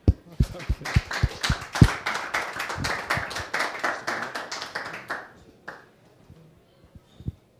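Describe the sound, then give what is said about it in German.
A group applauds a speaker after a talk, with dense, steady clapping for about five seconds, which thins out into a few scattered claps before fading to near silence. “Kriegst Du noch einen Applaus von uns.”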